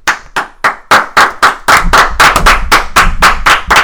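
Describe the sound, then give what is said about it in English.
Loud clapping in a steady rhythm that speeds up and grows denser, the sharp hand claps building toward fuller applause with no voices, greeting Motor Strength Health Club's announcement of its first sponsored athlete. “Wow, standing ovation. That's, That's be incredible. So loud.”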